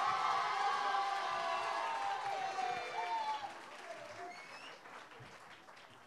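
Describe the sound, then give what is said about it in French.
Steady applause from an audience for the participants presenting Ma mère, le crabe et moi and La vie dure 3 minutes, a dense wash of many hands clapping with some voices calling out, gradually easing in volume toward the end. “On peut tous les applaudir.”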